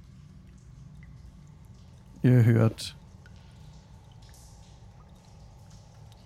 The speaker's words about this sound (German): was ihr gerade im Hintergrund hört tatsächlich. Dieses Fließen von Wasser und seltsame Geräusche aus dem Inneren.